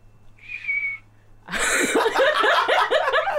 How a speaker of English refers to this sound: Okay, so I think what our fearless leader has explained to us is that uh, if if you hear this loud whistling sound.